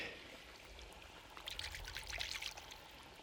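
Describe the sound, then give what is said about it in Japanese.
River water trickles and babbles over stones in a shallow stream on a hot day, a steady outdoor flow with brighter splashy bursts rising midway, moderately quiet, with no voices. “気持ちいいないやこんな暑い日は川遊び最高だろうな”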